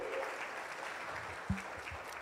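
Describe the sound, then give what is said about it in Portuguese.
A church audience applauds steadily on Father's Day, honouring grandparents, uncles and all who fill a father's role, a dense wash of clapping hands at moderate volume, with a faint low tone and a brief thump partway through. “Vamos mais uma vez dar uma forte salva de palmas por todas essas pessoas pessoas.”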